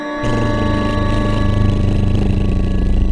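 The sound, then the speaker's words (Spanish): A small airplane engine kicks on abruptly, then settles into a steady, loud, buzzing drone with a rich harmonic hum that holds evenly to the end, with no voices present. “Oye, siento como que la avioneta ya va, ya va en el cielo.”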